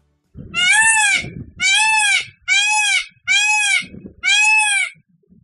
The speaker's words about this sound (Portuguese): Como será o canto do pavão, que é tão lindo? Ah, vamos ouvir.